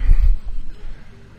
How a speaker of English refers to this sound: there's a herd of camels um, grunting and groaning, and some French tourists about to um, mount them, so they're all complaining. It's pretty entertaining. Um, hopefully, you can hear at least some of that in the background.